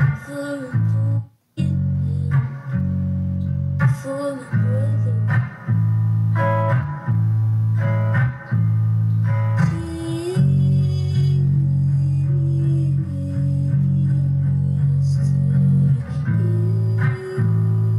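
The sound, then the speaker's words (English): The chorus of a song demo plays loud and unbroken for the whole stretch, with sustained, layered notes and a steady pulse of short pauses; no one talks over it. “Let me see what the chorus sounds like.”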